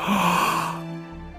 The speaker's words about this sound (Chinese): 过了一会儿，大野狼就假装困了，打了一个哈欠说。